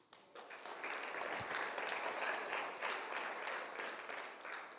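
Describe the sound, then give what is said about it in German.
A crowd breaks into sustained applause for a mother, dense overlapping claps rising quickly and holding at a steady, fairly loud level for several seconds with no speech over it. “Gib die Mama Applaus, bitte.”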